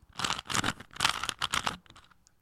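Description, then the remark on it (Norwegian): Fingers rapidly rubbing and clicking to mimic a Rubik's cube being twisted, a burst of about seven dry, crackly clicks in quick succession, fading out at the end. “det var lyden av, eh, det var lyden av fingrene mine som uh, eh, faka parodierte en Rubiks kube-lyd.”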